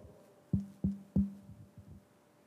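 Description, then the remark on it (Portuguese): Three firm knocks on a door in an even rhythm, each a low, woody thud with a short ring, followed by two or three softer, quicker taps; no voices. “Aquele ali é Deus fazendo assim na sua porta, ó.”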